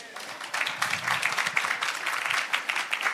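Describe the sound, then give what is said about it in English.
A crowd on a college campus applauds steadily to welcome California Senator Anthony Portantino, dense overlapping claps forming a continuous bright patter that swells after the first half second and holds at a fairly loud level throughout, with faint voices mixed in. “So when I go home, my wife doesn't clap when I come in the house.”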